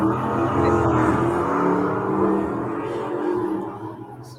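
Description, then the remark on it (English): Steady, loud roar of fast traffic rushing by on a major highway, with engine drone and tire noise that swells and slowly eases off toward the end. “Remember when I said I live on a major highway?”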